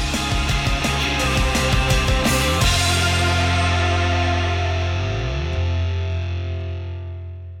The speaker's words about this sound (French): C'est parti, jingle.